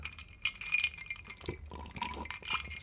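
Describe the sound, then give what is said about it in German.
Whisky glasses clink together in a toast, several bright ringing taps, with faint handling and liquid sounds around them and no talking. “Also Cheers auf den ersten Podcast.”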